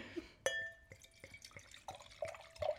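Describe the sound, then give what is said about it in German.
A drink is poured from a bottle into a glass, filling it very full, starting with a ringing clink and then a series of short gurgling splashes, with no talking. “Nein, sonst hättest du das Glas nicht so voll gemacht.”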